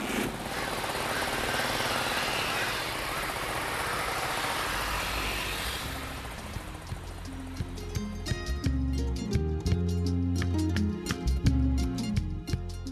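A motorcycle taxi engine runs with a loud, steady roar for several seconds, then pulls away carrying a passenger home without a helmet, as rhythmic music with a steady beat takes over.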